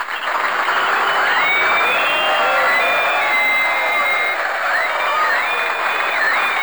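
Enthusiastic applause from a crowd, dense and steady for several seconds, with cheering and a few rising whistle-like tones layered over the clapping.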